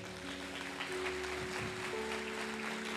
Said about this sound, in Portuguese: Aplaude a Deus, aplaude.